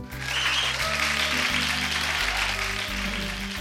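A steady burst of crowded applause, dense clapping that keeps up for several seconds, with a low, droning musical tone running underneath.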